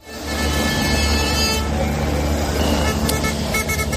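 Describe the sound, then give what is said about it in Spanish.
Tractor horns blare at a farmers' protest blocking the Nacional 6 road at Benavente, Zamora, Castilla y León, Spain: long, overlapping loud blasts over a heavy, steady rumble of idling engines, the honking continuing without a break throughout. “Desde muy temprano las tractoradas han comenzado cortando la Nacional 6 a la altura de la localidad zamorana de Benavente.”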